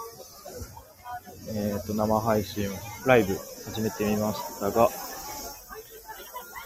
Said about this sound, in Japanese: セミは泣いてるやら、いろんななんか、アナウンスが飛び交っていいるやら。